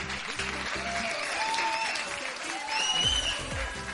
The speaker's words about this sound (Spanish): Y programa que, como sabéis, hoy estamos haciendo desde el Instituto Victoria Kent. Así que un fuerte aplauso que se note el alumnado.